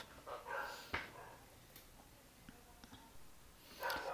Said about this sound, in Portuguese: É um cachorro latindo aqui, espero que não incomode vocês, mas é a vida, né?